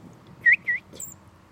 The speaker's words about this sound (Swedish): Ja, kommer en liten fågel här och säger...